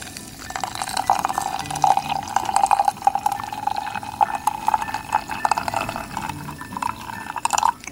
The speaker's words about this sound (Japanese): ガラスサーバーに 10g のコーヒーの粉が入りましたそうしましたらですね、えー、そのガラスサーバーにお湯を入れていくんですね、えー、こちらは 160cc のお湯を入れていきますえー、この時のお湯は、えー、沸騰したお湯で大丈夫です。